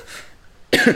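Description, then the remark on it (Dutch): A sharp, loud cough bursts out near the end, caused by a brief tickle in the throat, preceded by a softer breathy cough or throat sound a moment earlier. “Nou, hoest.”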